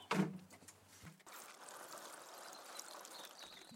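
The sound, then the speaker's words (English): In a greenhouse, a short knock is followed by a steady stream of water poured over potted plants, splashing onto soil and leaves, continuing for a few seconds with a soft trickling hiss. “Let's just give a bit of water to this here.”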